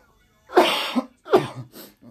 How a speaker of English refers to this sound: Ooh, you know, can't get can't get an episode going without a cough